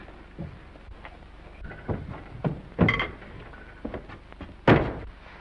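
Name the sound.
door being closed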